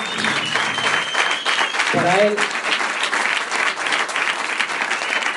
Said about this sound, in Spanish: Les pido un aplauso fuerte